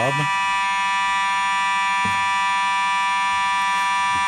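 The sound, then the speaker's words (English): A building alarm buzzer blares nonstop, a loud, harsh, steady electronic drone that holds unchanged for the whole stretch, with a few brief muffled thumps or voices faintly underneath. “What is that noise? Unfortunately, we're experiencing an alarm here.”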